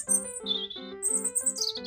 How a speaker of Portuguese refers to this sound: E aquele passarinho ali na árvore?